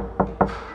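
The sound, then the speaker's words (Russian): Two dull, solid knocks on a thick new book, a quick double tap with a woody, muffled thud, fairly loud against a quiet background. “Мне очень нравится звук толстых книг, когда ты по ним стучишь, такой вот это звук э, новой книги, да?”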